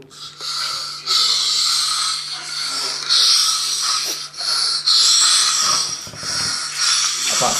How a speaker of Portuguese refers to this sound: eu posso mostrar como é que é o roncar dele.